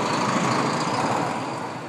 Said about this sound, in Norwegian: I kraftig turbulens så lander flyet på Trondheim lufthavn.